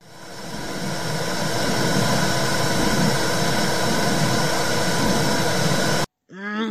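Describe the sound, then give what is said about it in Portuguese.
Womb sounds from inside the uterus: a loud, steady whooshing rumble with muffled low pulsing, which stops abruptly before a voice briefly starts speaking. “Pois bem, deixo-vos então com uns segundos de sons do útero.”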